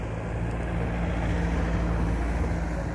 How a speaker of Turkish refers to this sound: Duyuyorsunuz bak araba seslerini. Sadece araba sesi. Araç sesi. Motor sesi. Birbiriyle konuşan kornalar. Küfreden kornalar.